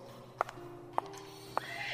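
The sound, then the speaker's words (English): A horse neighs over a steady, droning tone, with three sharp, evenly spaced knocks like hooves striking a hard floor, moderately loud, with horses going around at the Tate by the Thames. “Maybe something to do with all the horses going around.”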